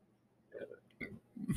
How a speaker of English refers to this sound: sorry, I burped.